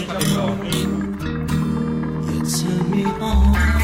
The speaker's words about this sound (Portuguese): Então, vamos brindar vamos ou não? Brindar. Vamos. Ah, a gente gosta de brindar. É, saúde.